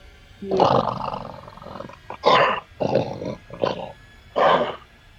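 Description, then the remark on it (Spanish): A voice imitates an animal's growl in several rough, roaring bursts: one long opening snarl followed by four shorter growls, loud, with brief pauses between them. “Y el, animal emitió un gruñido.”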